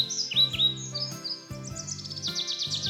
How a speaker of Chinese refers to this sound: 小鸟又唱了起来。